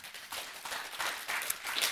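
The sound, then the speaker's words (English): An audience at a church service claps together, a steady, fairly soft patter of many hands that holds for a couple of seconds without any voices. “Everybody's in a generous mood. You just want to clap for everything.”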